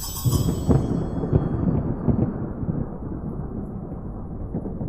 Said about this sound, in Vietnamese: Tiếng sấm nổ vang trời